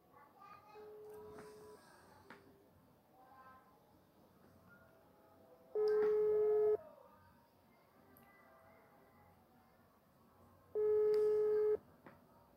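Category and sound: signal or alarm, telephone call ringing tone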